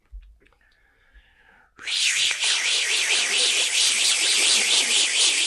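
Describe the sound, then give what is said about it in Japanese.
After a quiet, faint opening, a loud chorus of bear cicadas bursts in abruptly: a dense, shrill, high-pitched buzz that throbs in steady, rapid pulses and continues without a break, like many insects together. “だからあの前のクマゼミ。うん、ゼミちょっともう一回やって。”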